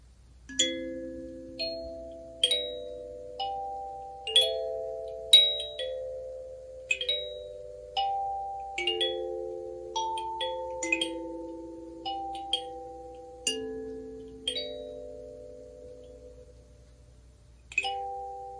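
A very slow performance of the classical piece The Harmonious Blacksmith, plucked on a kalimba, its bright metallic notes ringing out one at a time with gentle decays, played solo without any voices.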